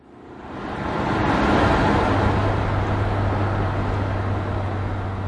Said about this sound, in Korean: 공항에서 서울로 향하는 자동차 안.